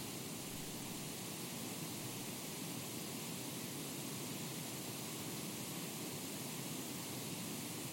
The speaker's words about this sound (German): Pink Noise habe ich noch nie gehört, aber du hast mir sicherlich was mitgebracht. Richtig, ich habe dir ein bisschen Pink Noise mitgebracht.